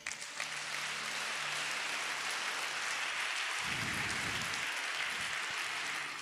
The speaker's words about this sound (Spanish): Dele un aplauso a Él.